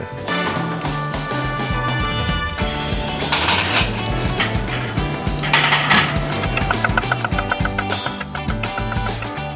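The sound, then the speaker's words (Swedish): A busy restaurant kitchen: steady clattering and tapping of utensils and cookware, with brief bursts of hissing, sizzle-like noise, all dense and loud throughout with no speech. “Får vi lite eh, restaurangköksljud här”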